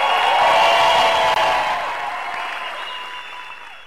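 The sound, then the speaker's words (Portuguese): A live audience breaks into loud, dense applause with scattered cheers and whistles, holding steady at first and then gradually tapering off over a few seconds. “Faz barulho pro meu amigo, meu irmão”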